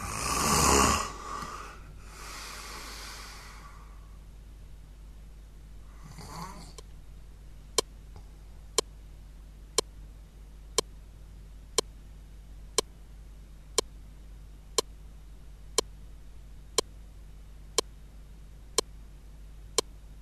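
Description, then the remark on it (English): A sleeper's heavy, snore-like breaths come a few times at uneven intervals at 2 a.m., then stop entirely as the sleeper stops breathing, leaving quiet broken only by a steady tick about once per second. No one speaks. “2 a.m., and the pattern begins to change. Within minutes, … stops breathing.”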